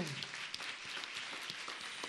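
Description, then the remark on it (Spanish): Steady audience applause at a live concert being recorded on Radio en Vivo, a dense wash of many hands clapping at an even, sustained level with scattered sharper claps poking through, no voices standing out. “Y con este aplauso que también se está grabando como parte de este concierto muy especial, les queremos nada más dar pie para continuar con la música, no sin antes agradecer a todos de este lado quienes hacen estos conciertos posible.”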